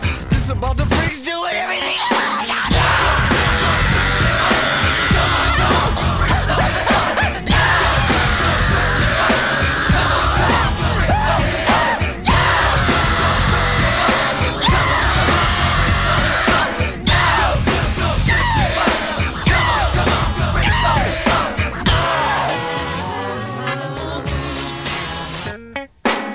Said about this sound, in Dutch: de kippenvel kan je daarvan krijgen. of het een korte schreeuw is of een keiharde schreeuw.